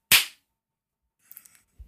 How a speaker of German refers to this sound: Also, und all, all, alle, die jetzt Kopfhörer auf hatten, werden sich freuen, dass dieser Klatscher kam.